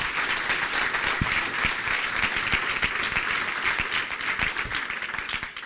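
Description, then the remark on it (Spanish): An audience breaks into sustained, dense applause, many hands clapping together in a steady roar that stays loud for several seconds, with no voices rising above it. “Dele ese fuerte aplauso, por favor, ahora sí.”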